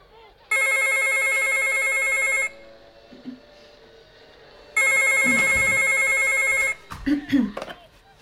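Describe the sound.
A telephone rings twice in long, bright, steady bursts, each about two seconds, separated by a pause. A voice briefly speaks as the second ring ends.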